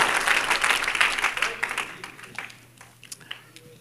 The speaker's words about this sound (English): Clap your hands unto the Lord and you may be seated.